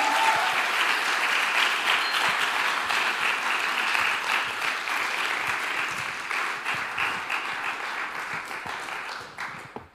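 Dense audience applause, many hands clapping in a steady, loud wash that gradually thins and fades toward the end.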